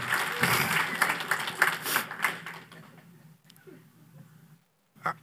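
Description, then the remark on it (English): An audience breaks into applause for the grandmothers, a dense crackle of many hands clapping at once that stays loud for a couple of seconds, then thins and fades away. “Hey, man, give them grandmothers a hand clap, right?”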